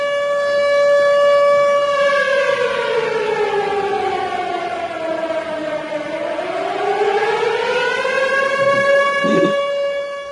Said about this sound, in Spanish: Parece que nos están atacando. Sí, pero vaya sirena más chuchurría, me cago en todo.